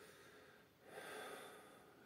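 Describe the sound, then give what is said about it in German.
A person breathes audibly through an open mouth, a soft airy breath that swells to a slightly louder, close-up rush midway, then eases off. No speech. “Atmest du zufälligerweise gerade durch den Mund? So?”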